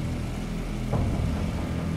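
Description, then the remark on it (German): A car engine in a video game drones somewhere, a steady low rumble with a faint hum that holds for the whole moment, moderately loud and without any voices over it. “Ich höre auch irgendwo ein Auto.”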